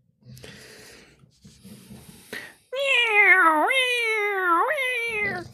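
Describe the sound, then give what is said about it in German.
A person imitates a cat: after a few soft breathy snorts, a loud, drawn-out nasal meow with two rising swoops, sustained for a few seconds. “Miau, miau.”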